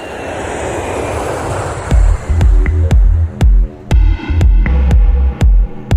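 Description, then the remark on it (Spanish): A loud, steady roar of engines as two airplanes take off from Florida, soon joined by a regular series of deep thumping pulses repeating about twice per second. “dos aviones despegan de la republicana Florida y aterrizan en Martha's Vineyard”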